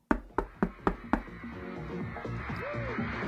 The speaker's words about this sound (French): Tenez, frappons à cette porte, je ne sais pas pourquoi elle me parle.